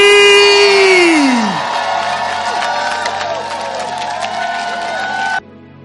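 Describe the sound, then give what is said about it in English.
A large church audience, standing, cheers and claps loudly to welcome their pastor, opening with a long sustained shout that slides downward, then dense applause and overlapping whoops that stop abruptly near the end. “So I want you to stand to your feet and I want you to clap your hands with shouts of Jesus joy and welcome our pastor,”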